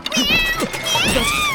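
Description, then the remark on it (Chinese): A human voice imitates a cat, giving a couple of drawn-out, high-pitched meows that rise and fall in pitch, loud and clear with nothing else behind them. “哦，对了，我穿着猫咪变身服呢，大家认不出来了。”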